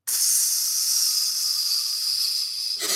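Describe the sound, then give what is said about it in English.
A steady hiss imitating sizzling bacon, made by a voice as an ASMR-style sound effect, holds evenly for about three seconds without crackles, then cuts off abruptly. No talking. “sizzles your bacon.”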